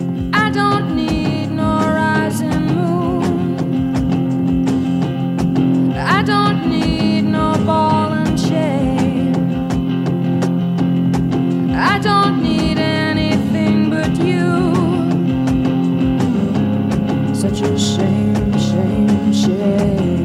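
A song plays steadily and loudly, with dense sustained harmonic instruments and a prominent melodic line, punctuated by periodic rhythmic accents and rising flourishes; no talking over it.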